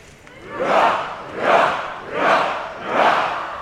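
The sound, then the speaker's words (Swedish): At a Swedish National Day celebration, a large crowd shouts four loud, evenly spaced hurrah cheers in unison for His Majesty the King and the royal family, each swelling and fading over roughly three-quarters of a second, with a murmur of voices between the shouts. “Vi utbringar ett fyrfaldigt leve för Hans Majestät Konungen och den kungliga familjen.”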